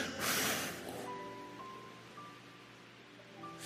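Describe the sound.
One loud, breathy blow of air pushed out through the mouth, lasting about a second, then fading into quiet with faint steady tones lingering in the background.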